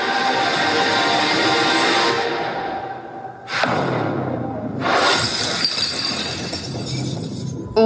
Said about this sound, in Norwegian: kuleknusing i Paradise Hotel-finalen i 2017.